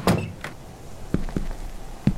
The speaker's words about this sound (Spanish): un criado abrió la puerta y pidió permiso.